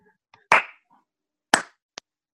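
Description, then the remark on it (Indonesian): Two loud, sharp hand claps about a second apart, each with a short ringing tail, then a brief faint click. No one speaks. “tepuk tangan online, tepuk tangan online.”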